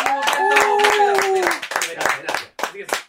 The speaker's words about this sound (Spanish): Así que Muchas gracias a todas las personas. Al equipo, un fuerte aplauso para no sé.